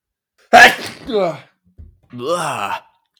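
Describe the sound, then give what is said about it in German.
A voice imitates a sneeze: a sharp, loud burst of breathy noise followed by a drawn-out vocal tail, then a short pause and a longer voiced groan-like sound. “So niest du? Das ist ja eklig.”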